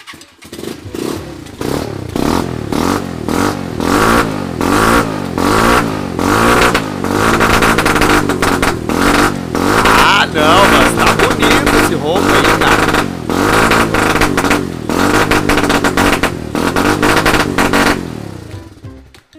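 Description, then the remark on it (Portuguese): A motorcycle called the Sanchez struggles to start: its engine sputters and catches, then revs repeatedly in rising and falling surges, loud and throaty with a rattling clatter throughout, before cutting off at the end. “Ela. Tá difícil. Ela não tá pegando.”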